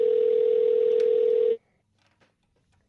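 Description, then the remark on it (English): A steady, loud telephone tone while calling someone's home number holds one pitch for about a second and a half, then cuts off abruptly, leaving near silence with a few faint clicks and rustles. “Oh, I'm calling his work number.”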